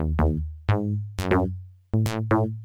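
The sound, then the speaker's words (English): A punchy FM synthesizer bass line, the first of a track's nine FM channels, plays alone: repeated plucky low notes with bright, decaying overtones, several attacks per second in a bouncy rhythm, loud. “There's that bass line.”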